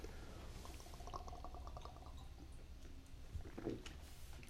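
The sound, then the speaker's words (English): Tequila-flavored Fireball liquor is poured into a glass, a steady gurgling stream lasting several seconds with faint glugs, fairly quiet and with no one speaking. “Hey, cheers to, This is uh, uh tequila flavored fireball.”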